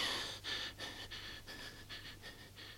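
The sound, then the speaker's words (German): A restless cat that cannot sleep, tossing back and forth, breathes laboriously in quick, rhythmic pants, about two or three breaths a second, fairly soft, with a faint steady hum underneath and no talking. “Dort liegt meine Freundin, wirft sich hin und her und kann auch nicht schlafen. Sie atmet mühsam.”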